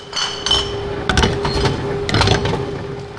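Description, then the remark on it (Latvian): On a late weekday evening in mid-October, a young man feeds empty glass bottles from two large bags into a modern deposit return machine in a shopping centre basement in Riga, Latvia. The machine pulls them in one after another with sharp clinks and clunks at irregular intervals over a steady mechanical hum, moderately loud. “Moderns staromāts vienu pēc otras ierauj iekšā tukšas stikla pudeles, kuras tajā no diviem lieliem aisiem liek jauns vīrietis.”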